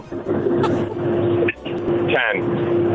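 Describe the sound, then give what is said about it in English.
A steady, droning truck engine hum runs throughout in the background of a phone caller, with a constant low tone and a brief dip midway, heard from inside a moving truck with a voice talking over it. “I don't know if he'll win, but I he always I hear the noise in the back, the truck.”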